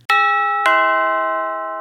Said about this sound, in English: What's that you say? Ding dong? Well, that means it's time for the mailbag.